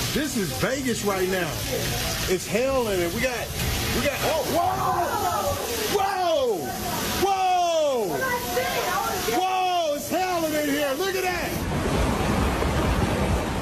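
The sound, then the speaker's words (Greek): Loud, steady rush of churning floodwater fills the whole scene, unbroken, while several people shout and call out excitedly over the roar; floodwater after torrential weekend rain in Las Vegas, Nevada, submerging hotel and casino parking lots. “Χώροι στάθμευση σε ξενοδοχεία και καζίνο στο φημισμένο τουριστικό προορισμό έχουν βυθιστεί στα ορμητικά νερά.”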